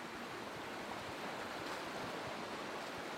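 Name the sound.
rushing river water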